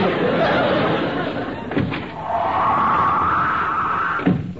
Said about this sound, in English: Oh, that door. Every time it slams, the place shakes.